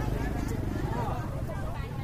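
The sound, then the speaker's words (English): Dense, steady hubbub of a crowded market aisle lined with banana sellers on both sides, many voices overlapping into an unbroken murmur, with faint clatter and movement mixed in. “going down an aisle now and there's just banana sellers crowded on both sides.”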